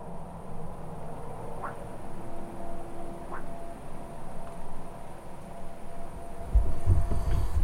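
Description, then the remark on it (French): A dog barks faintly in the distance, two short calls a couple of seconds apart, over the low steady rumble of a heavy truck passing far away on the national road, growing heavier at the end. “Bon, c'était tentative de grenouille, euh, mais c'était plutôt chien au loin et passage de poids lourd au loin sur la nationale.”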